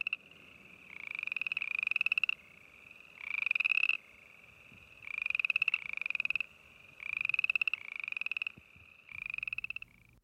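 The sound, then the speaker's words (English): A boreal chorus frog calls repeatedly, giving about six loud, rasping, slightly rising trills, each roughly a second long, separated by short pauses, with no talking. “Maybe it's the boreal chorus frog.”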